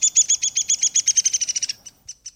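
A downy woodpecker's whinny: a quick run of high, squeaky notes that speeds up and slides slightly downward, followed by two separate calls, clear with no voices.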